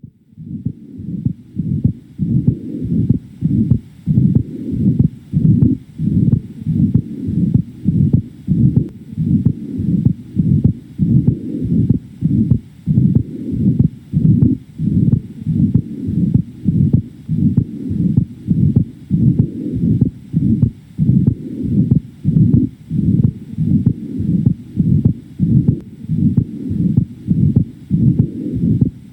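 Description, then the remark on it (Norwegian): Heart sounds with a split second heart sound from an atrial septal defect, a steady, regular lub-dub rhythm of low, muffled thumps repeating throughout, fairly loud, with no talking. “Barnet kan da etter hvert utvikle redusert utholdenhet og presentere seg med en spaltet andre hjertetone.”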